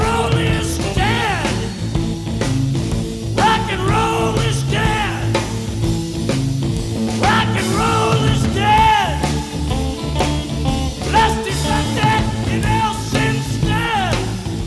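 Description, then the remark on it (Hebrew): A full-band rock recording plays steadily at a loud, even level, with a sung vocal line sliding over sustained guitar and bass tones and a constant rhythm section, from an hour-long studio recording released in the late 1990s. “אפשר לשמוע את זה בהקלטת אולפן בת שעה שראתה אור רק בסוף שנות ה-90”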